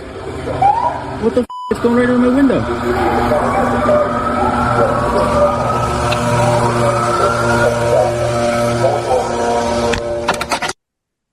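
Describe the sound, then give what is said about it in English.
A pesticide-spraying truck in New York City drives slowly past with a steady engine rumble and a whining mechanical drone, loud throughout, while a person speaks over it. The city is spraying pesticides to reduce the threat of West Nile virus. “Go indoors immediately until the trucks have passed. The city is applying pesticides to reduce the threat of West Nile virus.”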